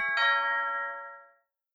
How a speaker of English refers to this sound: stop ringing that blasted doorbell. I am in the middle of the show and I am not coming to answer it.